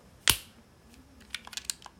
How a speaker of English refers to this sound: Okay, but three, two. I don't know how to snap my fingers. One.